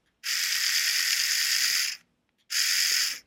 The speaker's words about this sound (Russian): Вообще, вот это, я понимаю, что вот это бритва, Вот. А. Она уже работает, послушайте.